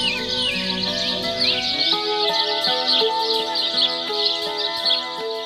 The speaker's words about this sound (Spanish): al llegar al río se encontró con varias aves que estaban también tomando agua. Había cardenales, revoltosos gorriones